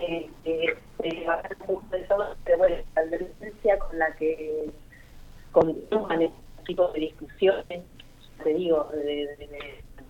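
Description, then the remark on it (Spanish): A voice talks over a thin, narrowband cellphone line as the caller moves around, the speech arriving in choppy bursts with brief dropouts and gaps where the signal seems to cut out. “Eh, eh, estás con celular, ¿verdad? Porque se, entrecorta un poquito.”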